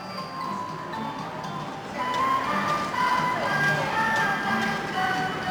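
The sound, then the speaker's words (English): A tinkly, chiming melody plays from an animated clock whose panels open to reveal little figures of children from around the world, amid busy ambient crowd noise, its bright notes growing louder and fuller about halfway through. “And once the introductory music has finished playing and all of the panels have opened to reveal little figures of children from around the world, you begin to hear the strains of that familiar tune,”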